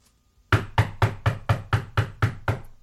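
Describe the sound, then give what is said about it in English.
Eight quick, firm knocks on a house door at 11 a.m. on a Tuesday morning by the person who mows the lawn, in a steady, evenly spaced rhythm, each a sharp solid thud that rings briefly, fairly loud, with no voices. “knocking on my damn door.”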